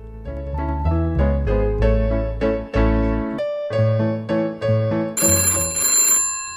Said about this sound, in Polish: O, ktoś dzwoni. Teraz tak dzwoni.